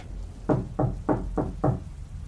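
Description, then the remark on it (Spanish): Five firm knocks on a wooden room door at night in a steady, evenly spaced rhythm, fairly loud, with no voices and only a faint low hum behind them. “Alguien tocó la puerta.”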